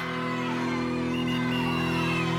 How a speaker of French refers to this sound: La foule de maternelles est déchaînée, galvanisée par le discours